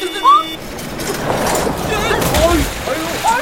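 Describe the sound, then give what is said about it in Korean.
The village chief's manual-transmission truck rolls into a river and is swept along in muddy water, with steady rumbling and churning, sloshing water throughout, while startled voices call out briefly over the noise. “어머 어머 트럭이 강물에 빠져 해요.”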